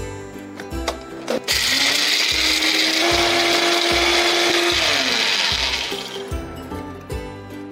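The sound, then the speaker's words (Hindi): A mixer grinder whirs loudly for about five seconds, a steady high-pitched motor roar grinding whole red chillies with the seeds removed, whole coriander and fenugreek seeds with a little water into a coarse paste, with a few knocks before and after. “इसमें हम एक पेस्ट डालने वाले हैं लाल मिर्च धनिया और थोड़ी सी मेथी होल रेड चिलीज इसके जो बीज है वो निकाल दीजिए थोड़ा सा धनिया होल धनिया एंड मेथी दाना कोर्स पेस्ट करेंगे थोड़ा सा पानी डाल के ताकि वो पिस जाए”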